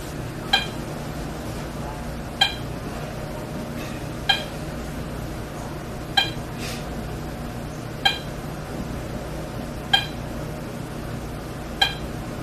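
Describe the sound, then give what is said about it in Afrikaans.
A very slow heartbeat of a patient whose heart beats too slowly (bradycardia), heard as seven short, sharp beats spaced about two seconds apart in a steady rhythm over a constant low background hum, with no talking. “Luister gou, hoe klink 'n pasiënt wie se hart te stadig klop?”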